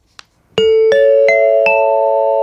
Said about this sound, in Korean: 요 소리입니다. 벨 소리. 노래 듣다가 이 소리 들리면 어떤 노래에서 들었어요 하고 가수 이름이나 노래 제목을 여러분들 주시면 됩니다.